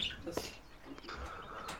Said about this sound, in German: Ich stell mal die Vögel raus, die stören uns noch. Ich entmute mich mal kurz. Wiedersehen, Vögel.